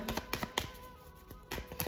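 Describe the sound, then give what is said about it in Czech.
Tarot cards being shuffled during a card reading: a handful of soft, crisp papery taps and flicks at an irregular pace, fairly quiet, with no talking. “A já už se dívám na vaše fotky, míchám u toho karty a my se spolu podíváme”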